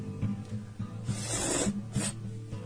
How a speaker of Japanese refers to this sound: 混ぜましたはいじゃあちょっとすすってみてください、はい、いただきます匂いはでも豚骨ラーメンですねこれもうすでに